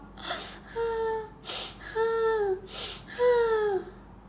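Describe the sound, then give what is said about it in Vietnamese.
Loud sobbing of a piglet: three drawn-out wailing cries, each preceded by a sharp, ragged gasp for breath, falling in a steady rhythm with no talking. “heo con gật đầu cảm ơn rồi tiếp tục khóc thật to”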